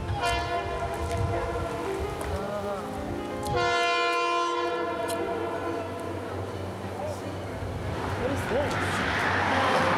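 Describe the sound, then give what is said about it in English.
A train rumbles past while its horn blares in long, sustained harmonic blasts that shift in pitch, with the roar of rolling wheels and noise building toward the end. “What is that, the train?”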